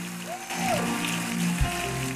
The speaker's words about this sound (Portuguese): Se você crê, aplauda mesmo ao Senhor e dê de vitória a Ele.